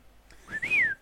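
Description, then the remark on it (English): A single short whistled call, sliding up and then gliding down in pitch over about half a second, imitating the call sign of Mr. Fox, with no talking around it. “It's oh, I love it, and I, I wish I could do the, the, the call sign that Mr. Fox does, but I cannot whistle, so it's depressing.”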